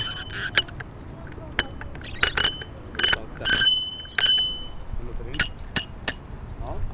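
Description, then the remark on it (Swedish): A bicycle bell rings as a sound check in several quick bursts of bright metallic dings, spread unevenly across a few seconds with short pauses between rings. “Soundchecka ringklockan.”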